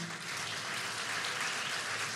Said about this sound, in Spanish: Pónganse de pie, denle un aplauso a esas mujeres.